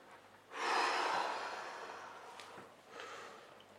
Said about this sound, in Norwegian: Ok, Så vi trekker pusten veldig mye før vi begynner å synge? Ja. Hyperventilere litt.